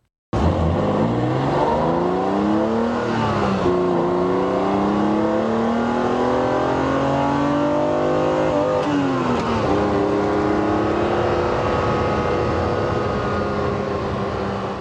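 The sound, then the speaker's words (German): A BMW M1's straight-six engine, with Kugelfischer injection, individual throttle bodies, twin overhead camshafts and four valves per cylinder, making 277 PS at 6600 rpm, heard from the seats inside the car, revving and pulling up through the gears with rising and falling pitch, loud and continuous for the whole stretch, no talking. “Einspritzungen von Kugelfischer, Einzeldrosselklappen, zwei obenliegende Nockenwellen, vier Ventile pro Zylinder, was dann zusammen eine Leistung von 277 PS bei 6600 Umdrehungen ergab.”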